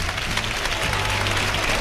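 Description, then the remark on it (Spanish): A bullring crowd breaks into a sustained ovation for José Mari Manzanares, dense applause crackling steadily at an even loudness for the whole stretch, with a faint low hum running underneath. “Esta ovación es para José Mari Manzanares.”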